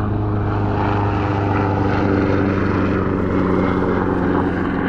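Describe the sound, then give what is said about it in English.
An air ambulance helicopter drones loudly overhead for the whole stretch, its engine and rotor making a steady, throbbing roar with a low hum underneath and no voices. “there's also a helicopter about to fly over our heads, so there's probably going to be some noise. It's like an ambulance helicopter.”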